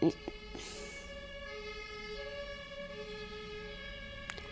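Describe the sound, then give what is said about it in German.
An ambulance siren drones steadily in the background as it drives past, a faint, sustained tone with little change in pitch, with a couple of brief clicks near the start and end. “Danke, Krankenwagen, dass du vorbeifahren musst, gerade wo ich aufnehme.”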